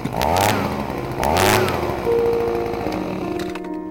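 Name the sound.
leaf blower engine running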